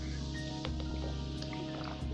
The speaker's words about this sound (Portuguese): Ah, deixa eu tomar aqui um golinho d'água, que eu já falei um, um pouquinho, um pouquinho demais.